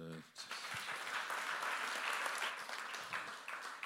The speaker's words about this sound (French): vous pouvez encore applaudir parce que ce que vous ne savez pas, c'est que c'est sa première fois qu'il prenait la parole en public, en live sur ce sujet.